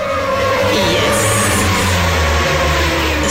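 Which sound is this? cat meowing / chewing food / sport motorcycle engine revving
sport motorcycle engine revving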